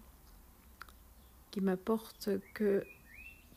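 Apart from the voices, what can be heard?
birds chirping outside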